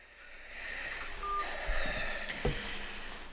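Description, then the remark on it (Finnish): Brief electronic telephone tones sound as a call disconnects, a couple of short beeps over a steady line hiss, fairly soft, with no one speaking. “Mä pistän puhelin, puhelin kiinni, niin sitten kuulet vastauksia”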